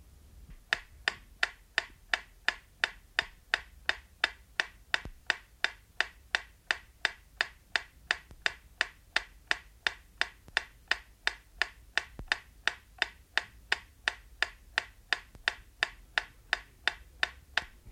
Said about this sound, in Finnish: Seuraavassa kuulette metronomin tikitystä, jonka pitäisi kuulua ainoastaan vasemmanpuoleisesta kaiuttimesta.